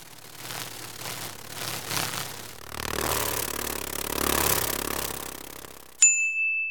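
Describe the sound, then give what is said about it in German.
Continuous whirring of dragonfly wings, a rapid papery flutter over a low buzzing hum, swelling and fading for several seconds before a bright chime rings out at the end. “Das Flügelschlagen einer Libelle.”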